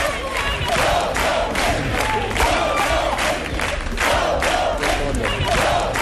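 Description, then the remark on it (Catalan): A gospel group known from TV3's programme Oh Happy Day, shout their battle cry together in loud, rhythmic bursts, about two per second, a dense wall of voices sounding much like a cheering crowd, with no pauses. “estem escoltant els …, un grup de gospel que vam conèixer gràcies al programa Oh Happy Day de TV3, que acaben de treure disc i que tenen un crit de guerra que és aquest.”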